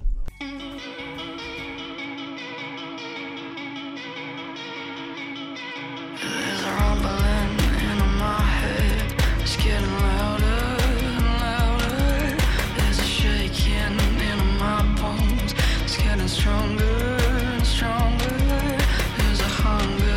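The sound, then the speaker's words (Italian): A rock song plays loud and alone, opening with a sustained, effects-laden guitar intro for about six seconds before drums and full band crash in with a driving, steady beat. “andiamo adesso con un bel intermezzo musicale per darci un tono.”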